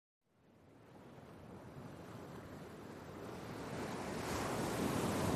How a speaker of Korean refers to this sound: 새벽에 눈을 떴어. 방문 앞에서 누군가 울고 있는 것 같아서 잠이 깨어 문을 열었더니 대돌까지 밀려온 바닷물이 찰싹이는 소리였어.